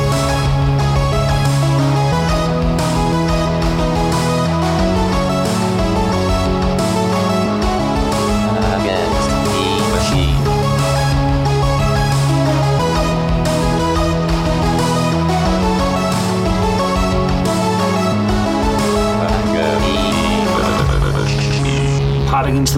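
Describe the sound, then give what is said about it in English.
Loud instrumental theme music titled 'Theme Against the Machine', with a steady pulsing beat and sustained bass notes shifting every few seconds, a full dense mix playing throughout before a brief swelling flourish near the end. “Theme Against the Machine was written and performed by our own Zach.”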